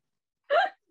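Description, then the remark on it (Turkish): A single short, voiced hiccup from a person just before a recording, fairly loud, a quick catch of breath with a rising squeak, surrounded by silence. “bir, de, bir de benim ufak bir hıçkırık meselem vardı arkadaşlar.”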